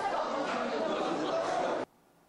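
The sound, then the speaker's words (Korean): A classroom sound effect: a dense, steady murmur of many young students chattering at once fills the space for about two seconds before cutting off abruptly into near silence. “어 급격히 조용해졌네 좋아 효과음이 여기까지였거든”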